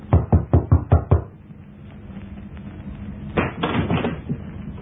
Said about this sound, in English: I walked down the stairs to the next floor and knocked at a certain door.